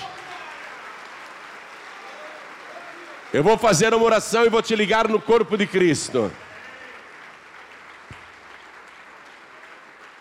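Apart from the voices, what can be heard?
audience applauding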